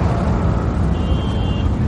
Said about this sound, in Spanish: El coche para.